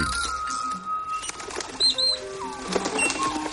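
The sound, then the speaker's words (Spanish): A parrot's wings flap in a soft, fluttering burst as it flies over an island and among the trees, with a few short bird whistles and calls over a steady outdoor background hum. “Al mismo tiempo, el loro sobrevuela la isla y se introduce en ella. Vuela entre los árboles hasta llegar a Nim.”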